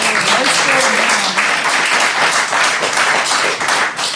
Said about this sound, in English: okay, round of applause for ….